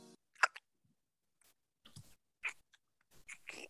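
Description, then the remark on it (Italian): Wet, close-up chewing right against the microphone, a series of irregular squishy bites and smacks with brief silent gaps between them, no voices. “Cioè, la, la, cosa che io non concepisco è come avere una persona che ti mastica all'orecchio tutto il tempo.”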